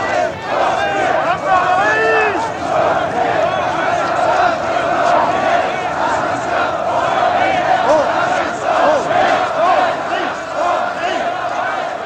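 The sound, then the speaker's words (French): A crowd of street demonstrators in Paris on 7 November 1956, rallying in defence of the Hungarian revolution, keeps up a loud, unbroken roar of many voices, with individual shouts and chant-like cries rising above the mass for the whole twelve seconds. “Le 7 novembre, à Paris, on manifeste pour défendre la révolution hongroise.”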